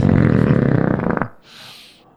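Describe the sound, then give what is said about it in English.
A loud, drawn-out belch, made as part of rating a beer, rumbles for about a second with a raspy, pulsing texture, then cuts off into a brief soft breathy hiss. “Uh, we'll be discussing and rating these beers with these suds ratings plus our signature belching sounds.”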